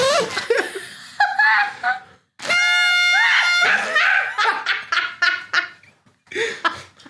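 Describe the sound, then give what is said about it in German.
Party blowers give several buzzy, reedy toots, one long steady blast in the middle, with laughter and excited voices between the honks. “Kann man Partyrüssel kaputt pusten”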